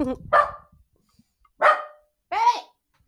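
A dog barks three times in separate loud, sharp bursts spaced about a second apart, with brief quiet gaps between each bark.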